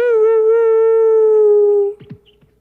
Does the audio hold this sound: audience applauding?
no